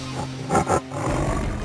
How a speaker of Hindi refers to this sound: शेर अपन गुफा से बाहर आई सब शेर के सामने हाथ जोड़लन सा शेर जोर से दहाड़ लगौलस और कहलस